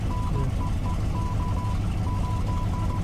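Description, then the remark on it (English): A single steady, mid-high tone beeps out Morse code in a run of short and long pulses from a commercial played on a loop, sitting over a heavy, continuous low rumble. “If you know Morse code and drive a Passat, you'd be pretty offended right now.”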